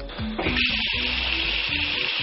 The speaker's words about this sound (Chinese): 这个水流声呢，大概是七十分贝左右，比我刚刚打电话要稍微小那么一点点。接下来呢，我要去隔壁的房间看看能不能听到这个水流的声音。